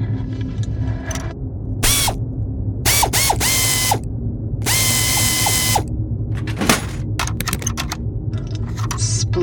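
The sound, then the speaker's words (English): A ratchet tool clicks in several quick bursts, some with a rising whir, over a steady low mechanical hum, fairly loud, with no voices, as the control panel is taken off a terminal. “Well, probably if you can get the control panel off. I can.”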